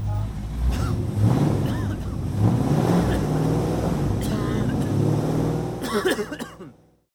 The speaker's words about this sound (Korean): 이 소리는 기후 위기를 심화시키는 내연기관차가 매캐한 매연을 뿜으며 지나가는 소리입니다.